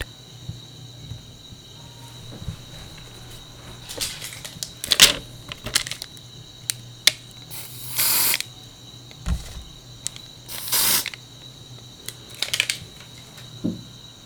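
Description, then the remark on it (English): Clicks and rattles of a deodorant spray can being handled, with a couple of short, sharp hissing sprays in between. No one speaks. “Let's try some deodorant.”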